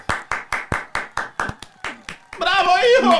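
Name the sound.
applause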